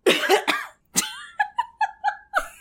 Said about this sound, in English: That's you coughing up all the cigar smoke because you're a newscaster.